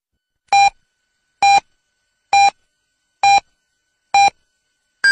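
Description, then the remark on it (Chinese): Radio hourly time signal marking 22:00 Beijing time: a steady series of short, identical mid-pitched electronic beeps about a second apart, with silence between them and no talking. “北京时间二十二点整。”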